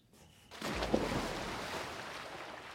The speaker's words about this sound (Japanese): 突然大きな水音が外から聞こえてきました何なのこのペンションにはプールが設置されています音はそのプールの方からしました私は窓越しにそのプールを見ましたえ夜中の3時にもかかわらず一人の男の人がプールで泳いでいました